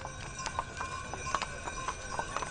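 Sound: horse hooves clip-clopping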